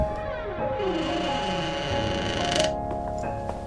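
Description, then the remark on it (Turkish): A mustard-coloured wooden door, pushed with a fingertip, creaks slowly open onto a small hall, a drawn-out groaning squeal with wavering pitch and a few small clicks, lasting a few seconds with no voices. “Küçük sofaya açıldı kapı.”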